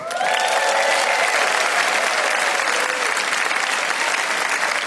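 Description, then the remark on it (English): A large crowd claps loudly and steadily in a dense wash of applause after a magic trick, with a few faint whoops or cheers rising over it near the start. “And the red handkerchief reappears in the pocket, and the applause is amazing.”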